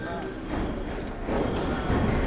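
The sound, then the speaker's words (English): Horse hooves clip-clop steadily on a street in Boston's North End, a crowded waterfront district, a continuous rhythm of clops set against busy street bustle and an indistinct murmur of voices. “Laborers, residents, commuters, horses, they're all just going about their business.”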